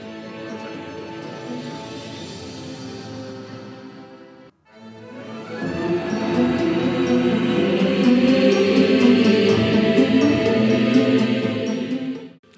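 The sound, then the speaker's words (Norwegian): Dramatic video game music plays for Voldemort's victory in a battle against Dumbledore: dense, sustained orchestral-style chords swell, break off for a brief moment, then return louder and fuller until the end. No one speaks. “Kan jeg få høre musikken når Voldemort vinner?”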